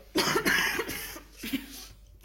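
A person coughs, a harsh burst of several rapid coughs followed by a quieter pause and one more cough near the end.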